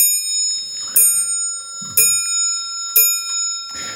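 A clock chimes with several evenly spaced strikes about a second apart, each bright metallic tone ringing on and overlapping the next, clear with no talking.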